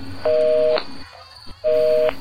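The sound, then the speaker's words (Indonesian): Two long, steady telephone tones of an outgoing call to the caller's mother sound with a short pause between them, ringing through. They come across clear and fairly loud, with no voices. “Oke oke oke, bentar ya, gua telepon nyokap dulu.”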